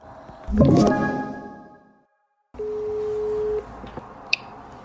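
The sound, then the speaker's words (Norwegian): A single steady telephone ringback tone on an outgoing call sounds for about a second over a hissy phone line, after a brief clattering burst and a short silence. “Og så ringer vi til den”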